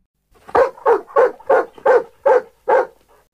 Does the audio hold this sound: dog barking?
yes